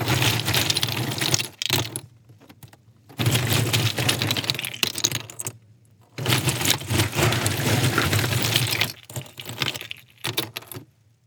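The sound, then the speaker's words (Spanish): Ice rattling out of an ice maker's dispenser in three dense bursts of clattering, clinking cubes, each a few seconds long with short pauses between, fairly loud over a steady low hum. “Ese es el sonido de hielo saliendo de una máquina de hielo.”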